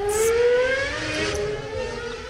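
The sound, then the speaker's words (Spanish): A Formula 1 car engine screams at high pitch, its whine climbing steadily as it accelerates over a constant roar, loud for the whole stretch, with no voices. “Ahí están los motores de la F1 y bueno, la F1 en México está cada vez más cerca”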